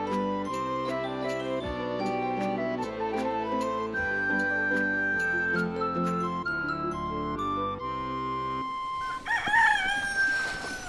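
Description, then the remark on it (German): Bright music with jingling chimes plays for several seconds, then breaks off as a rooster crows loudly, followed by a bit of clucking from chickens on a ship's deck; no one speaks. “Die halbe Nacht habe ich mit den Hühnern auf Deck verbracht und gesteuert”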